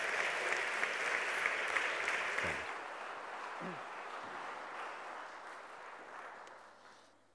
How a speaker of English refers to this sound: Should we give Bishop Andrew another round of applause before he comes up?